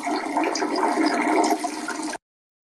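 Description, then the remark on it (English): A toilet flushes with a steady, loud rush of swirling water that holds for about two seconds before cutting off abruptly. No voices are heard. “When you just pissed.”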